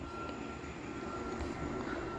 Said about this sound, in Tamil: வந்துட்டான்டா ஃப்ளைட்டுக்காரன் ஃப்ளைட் எடுத்துன்னு ஐயோ ஐயோ நிறைய பேர் போட்டிருந்தீங்க இந்த பாட்காஸ்டில் அப்பப்போ ஃப்ளைட் சவுண்ட் கேட்குறது நல்லா இருக்குங்களா